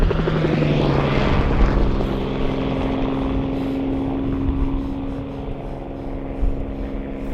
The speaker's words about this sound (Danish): vi kunne høre nogle helikopter i luften